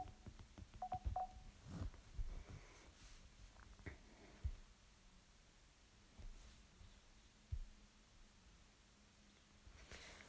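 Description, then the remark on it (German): A short burst of telephone keypad tones near the start as a phone number is dialled to call someone back, several quick beeps in a row, followed by quiet handling noises, soft thumps and background hiss with no talking. “Ich würde sagen, wir rufen ihn wieder an.”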